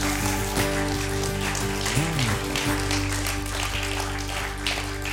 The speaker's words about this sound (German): Gebt ihr mal einen riesen Applaus.